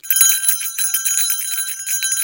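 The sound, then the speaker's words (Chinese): A bear bell, received as a gift and meant to hang on a backpack so its sound while walking keeps bears away, rings continuously for a couple of seconds, a bright, high-pitched metallic jingle with uneven pulses as it is shaken, fairly loud and with no voices. “我给大家听一下什么叫做熊铃的这个声音，就是你只要把这个熊铃挂在你的背包上面，它。”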